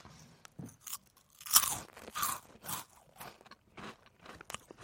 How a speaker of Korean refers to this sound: 제가 옆에서 과자를 좀 냄새를 좀 풍기면서 좀 더 먹도록 하겠습니다. 음, 오징어 과자 아니에요? 네네 ASMR로 여러분들 들어보시고요.